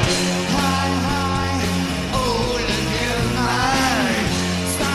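A recording of a man singing a rock song over a loud, dense band backing, his voice gliding through sustained notes while the music plays steadily throughout.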